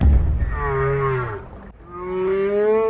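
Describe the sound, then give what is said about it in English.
Whale song: two long, mournful tonal moans with rich harmonic overtones, one slowly falling and the other rising, over a faint low rumble, with no voices. “It's whale sounds. I thought it'd be soothing.”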